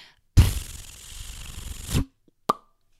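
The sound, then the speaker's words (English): A single paper page turns: a crisp rustling sweep lasting over a second, with sharper crackles at the start and finish, then a short soft tap. No one speaks. “A page turn noise.”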